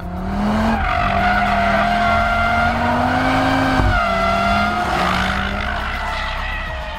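An RS3 car drifts on a race circuit with a loud, sustained engine roar while its tires squeal and skid, the engine pitch rising steadily, dropping abruptly near the middle, then climbing again as the slide continues.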